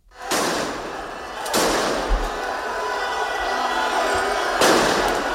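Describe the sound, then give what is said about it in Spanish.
Three sharp, loud firecracker blasts go off at uneven intervals at a street protest of about 2,000 people outside Ferraz, thrown at charging police, amid a dense, constant roar of the crowd, the last burst ringing out near the end. “Los más radicales han quemado banderas catalanas y han lanzado botellas, latas y petardos a la policía que cargaba.”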